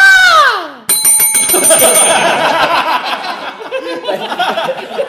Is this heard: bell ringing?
yes